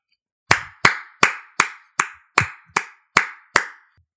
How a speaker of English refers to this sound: But shout out Damien. I'll give him a clap.